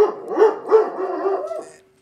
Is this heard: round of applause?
no